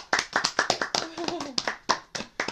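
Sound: short round of applause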